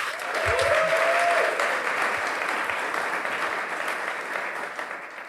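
A crowd at the Gullbranna festival gives a warm welcome applause to a guest. It is a dense wash of clapping that holds loud throughout and tapers slightly at the end, with a brief faint whoop near the start.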